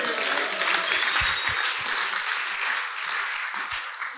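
An audience applauds in a dense, steady wash of many hands clapping, loud and sustained for several seconds with only a slight fade toward the end, no voices standing out.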